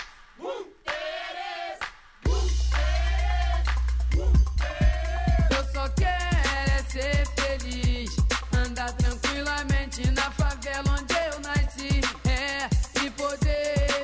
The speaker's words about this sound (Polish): Nowy styl, który w, w Brazylii jest nazywany funky i dzisiaj ma bardzo wiele różnych e, form, ale ta najbardziej klasyczna brzmi właśnie tak. Posłuchajcie.